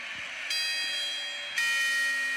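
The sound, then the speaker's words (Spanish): Two strikes of a New Year's Eve clock bell, part of the twelve midnight chimes, roughly a second apart, each a bright metallic clang with a sustained shimmering ring over a steady background hiss, with no talking. “Una campanada.”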